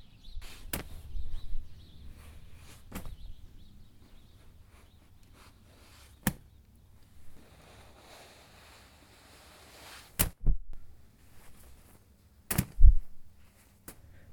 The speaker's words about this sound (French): Le ciel est bleu, les arbres blancs. Tout est cotonneux, molletonné, mou, épais. Bruit de la neige qui tombe des toits.